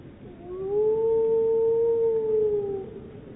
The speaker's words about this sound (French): C'est ça qui est bien, c'est que on entend à la fois les hurlements et on peut aussi communiquer avec les loups. On émet un signal et ils nous répondent aussi quoi. Et c'est ça l'avantage.